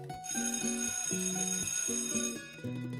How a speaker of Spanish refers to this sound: suena el timbre que anuncia el final de la jornada en la Plaza de Mercado de Tuluá.